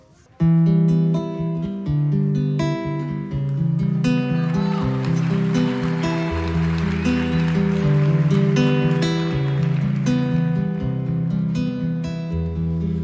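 A slow rock ballad intro plays with sustained, shifting chords over a steady bass line, full and even in volume, starting after a brief quiet moment with no singing yet.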